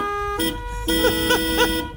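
Several car horns, each honked by a person in a car while a conductor signals, blare together as a symphony in sustained, overlapping tones, a short burst followed by a longer held chord with a few wavering, swooping notes riding on top, fairly loud.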